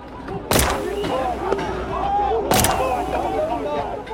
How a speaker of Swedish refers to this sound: Samtidigt hör jag ju också varningsskott.